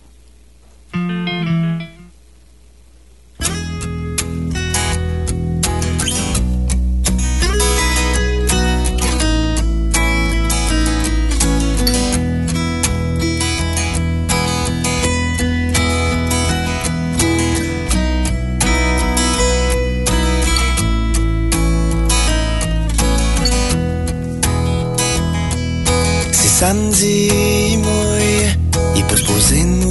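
A short burst and a pause, then a full-band song from an EP kicks in and plays loud and steady, with driving rhythm and dense layered instruments, continuing to the end.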